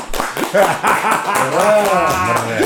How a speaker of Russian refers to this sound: Тебя заглушили аплодисменты.